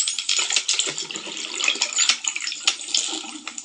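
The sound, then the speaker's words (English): Dolphin clicks crackle rapidly and irregularly over a steady underwater hiss, with a thin high whistle drifting faintly above them. No one speaks. “this is going to be maybe a little bit muddied because it's underwater sounds but this is a dolphin click and whistle. So you can hear the clicks.”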